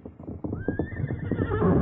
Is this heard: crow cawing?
no